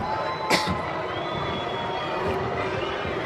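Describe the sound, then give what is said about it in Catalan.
A stadium crowd whistles at Getafe player Greenwood over his past as he takes a corner. A steady, dense roar of many voices is threaded with thin, high whistling tones, with one sharp burst of noise near the start. “Ara aquests xiulets pel jugador del Getafe pel seu passat.”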